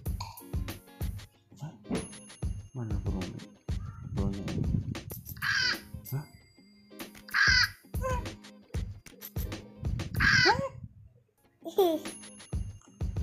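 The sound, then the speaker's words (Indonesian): A child imitates a bird with four harsh, crow-like caws, spaced a couple of seconds apart, after a stretch of soft chatter and babbling. “Apa kalau uh, suara burung?”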